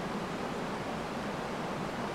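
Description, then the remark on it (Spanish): A waterfall rushes in a steady, dense roar of falling water, continuous and unchanging throughout, moderately loud, with no voices. “empieza a quitarse cada una de sus prendas y las arroja a la cascada.”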